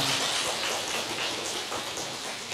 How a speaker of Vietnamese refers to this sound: rất tốt thầy xin chúc mừng xin tán thán rong tràng pháo tay